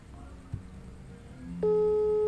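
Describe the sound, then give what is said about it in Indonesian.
A telephone ringback tone sounds for an outgoing call: a steady electronic beep switches on abruptly after a stretch of quiet background noise and holds loud until the end. “nah berdering nih manusia satu nih”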